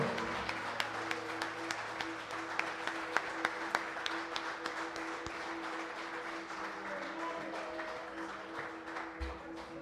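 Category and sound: crowd, audience applauding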